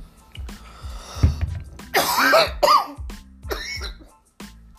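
A harsh coughing fit after taking a smoke hit: a string of ragged, hacking coughs with raspy, wheezing strains in the middle, broken by short gasps for breath. No one speaks.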